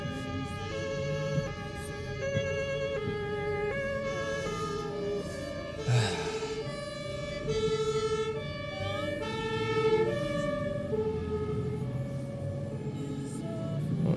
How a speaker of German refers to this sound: Oh wow, jetzt kommt da hinten ein Krankenwagen und ich kann nirgendwo hin.